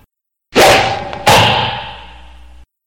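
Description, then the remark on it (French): A sharp swish cuts through the air as Heracles shoots an arrow from his bow, followed moments later by a second sudden burst that trails off into a fading, ringing tail; fairly loud, with no voices. “Héraclès tend son arc et il lance une flèche qui passe entre l'os et le tendon.”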